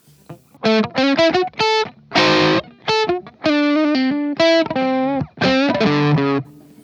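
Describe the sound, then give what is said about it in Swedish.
Distorted electric guitar played through a D100 distortion pedal set to its middle position with the volume turned down. It plays a choppy riff of short, gritty chord stabs and sustained bursts separated by brief gaps, loud and saturated with a thick harmonic buzz and no voices. “Eh, och det är min, eh, alltså D100 där då. Eh, hur den låter.”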